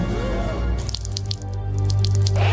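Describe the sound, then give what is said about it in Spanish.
Wet splattering as an egg explodes, with a quick run of dripping, spattering sounds over a steady low hum, moderately loud, with no clear single bang. No one speaks. “Me acaba de explotar un huevo.”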